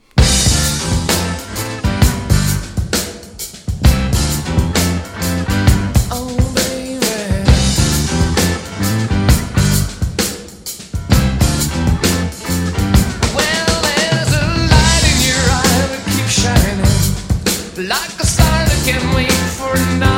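A loud, full-band rock song plays with steady, prominent drums driving a bouncy rhythm under layered guitars and vocals, continuing throughout with only brief dips in intensity.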